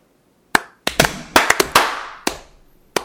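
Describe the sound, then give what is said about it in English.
A burst of sharp hand claps made to sync a recording, around eight or nine, loud and bright, landing in an uneven, ragged rhythm with a few quick doubled hits and brief gaps, with no talking. “All right, clap again.”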